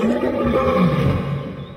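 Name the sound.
lion roar sound effect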